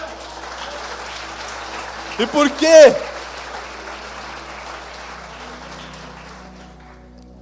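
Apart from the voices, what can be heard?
audience applause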